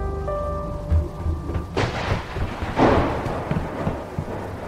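A typhoon: heavy rain hisses steadily while thunder rumbles low and rolls, with a sharp crack partway through and another loud burst swelling soon after, a storm raging without any voices.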